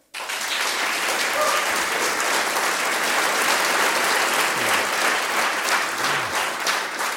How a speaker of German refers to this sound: Und jetzt freuen wir uns ganz besonders, dass wir einen großartigen Trompeter bei uns haben, einen der tollsten ich sag's jetzt mal, Nachwuchstrompeter Deutschlands, begrüßen Sie mit einem kräftigen Applaus